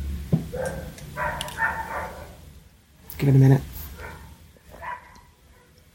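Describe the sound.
A dog barks right outside, one loud, sharp bark standing out midway with fainter barking around it, while a person speaks quietly in the foreground.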